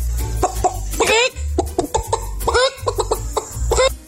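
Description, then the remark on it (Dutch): A person imitates a chicken for a radio animal-guessing game on Animal Day, with a run of short, rhythmic clucks and a few rising squawks, fairly loud, over a low steady hum. “een imitatie van een kip doet.”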